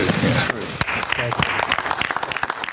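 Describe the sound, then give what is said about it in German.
The US President's cabinet claps loudly and vigorously after he signs a directive to the Pentagon, a dense rapid patter of many hands, with voices murmuring and calling out beneath the applause. “Der US-Präsident unterzeichnete gestern eine entsprechende Anweisung an das Pentagon und sein Kabinett trommelte nicht, aber klatschte kräftig.”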